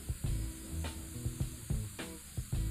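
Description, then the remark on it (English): A steady wet hiss and scraping churn over a low engine drone, with rhythmic brushing swells every half second or so, from a loud street sweeper working on a road while it is raining. “We got the loud street sweeper again.”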